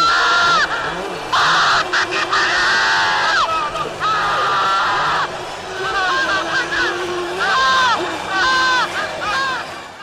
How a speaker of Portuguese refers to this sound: É, é, muito, cara, aquela, aquela corrida que ele ganha e os gritos que o Senna dá é um bagulho maravilhoso. Ele manda um puta que pariu! Ah! Gritando pra caralho no, no carro, né?